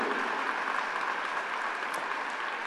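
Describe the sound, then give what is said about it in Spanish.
An audience claps for the Lord together in a steady, dense wash of applause that holds at an even loudness throughout, with no voices standing out above the clapping. “Da un aplauso al Señor.”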